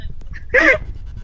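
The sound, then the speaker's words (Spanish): A woman lets out a single short, strained sob, a wavering, choked cry lasting a fraction of a second, fairly loud against a quiet background with no talking. “¿Estás llorando”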